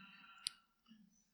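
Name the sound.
mobile phone going off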